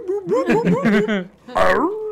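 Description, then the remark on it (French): A person's voice imitates a dog barking, with a quick run of short, yappy vocal bursts followed by a louder, drawn-out bark, fairly loud. “qui, sort quelque part, puis qui aboie, puis qui est comme genre.”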